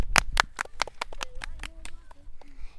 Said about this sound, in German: Applaus, Applaus, Applaus. Applaus.